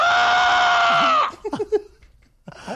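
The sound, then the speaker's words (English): A person imitates an eagle call: one loud, sustained, shrill screech about a second long. Brief talking and laughter-like voices follow. “send a video of yourself doing the Eagle call. You know, what is the Eagle call?”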